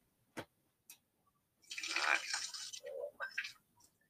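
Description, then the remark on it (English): Two sharp clicks, then a few seconds of steady, fairly loud splashing as salted cooking water from boiled cubes of butternut squash is poured through a strainer, with gurgling toward the end. “I chopped up some of my uh, butternut squash into cubes, and then I just put them in a pot of water with a little bit of salt, uh, and then I am going to strain that right now.”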